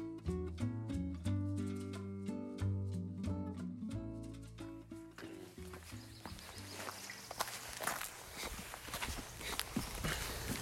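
A few seconds of tonal music give way to steady footsteps of a 19-year-old and his mother taking a walk outdoors, with a gentle rhythm over a broad background hiss of open-air ambience.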